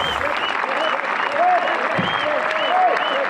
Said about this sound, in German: Und jetzt dürfen wir uns doch noch ganz besonders über das Comeback von Sebastian Aller freuen. Und ich denke, jeglicher Applaus, der jetzt noch hoffentlich von den Rängen kommen wird, ist äh, verdient. Und den sollte er genießen.